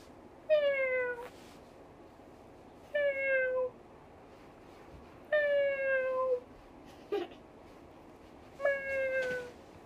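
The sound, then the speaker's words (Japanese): A person imitates a cat, giving four drawn-out, falling meows spaced a couple of seconds apart, fairly loud, with no talking in between. “だって犬の鳴き声難しくない猫簡単だよ”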